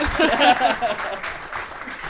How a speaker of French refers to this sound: on peut l'applaudir. Hein, on en profite, on est en public.